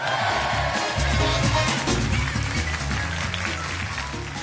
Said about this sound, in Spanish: Y después de estos aplausos que tantos merecéis